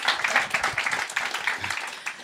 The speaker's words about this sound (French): Putain, on l'applaudit elle, du coup. voilà, c'est ça.